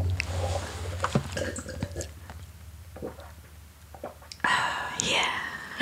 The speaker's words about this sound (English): This is us drinking water. my turn. My turn.